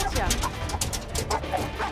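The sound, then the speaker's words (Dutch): Several dogs, mainly two female dogs, bark and yip at one another in quick, overlapping bursts, a steady, fairly loud stream of barking that fills the whole stretch as the dogs go wild at each other. “Oké, neem hem maar gelijk mee, want ze worden helemaal gek van elkaar. Het zijn vooral die, met name die twee teefjes die dat doen.”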